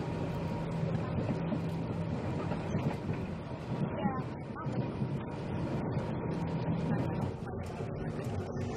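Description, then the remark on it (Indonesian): Steady, loud rumble inside a moving KRL electric commuter train on the Bogor Station line, with a constant low motor hum, rattling and a brief metallic squeal midway, plus faint indistinct voices in the background. “Selamat sore, kami informasikan saat ini Anda berada di KRL Komuter Lain 7 Hanyar Stasiun Bogor.”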